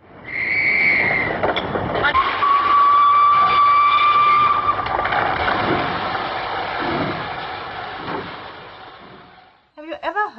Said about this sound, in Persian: نمونه های کلاسیکی از منتاج سمعی و بسری توی این فیلم به ظهور میرسه. مثل صحنه که جیغ نظافتچی هنی حین کشف جسد با صوت گوشخراش لوکوموتیو حامل هنی ادغام میشه.